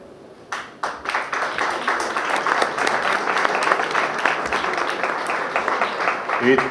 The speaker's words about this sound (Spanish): Y a mí me parece de puta madre que se junten, porque … joder, es un puto grupazo, todos hemos crecido con él, los hemos influenciado y, y que un aplauso para vosotros, tío.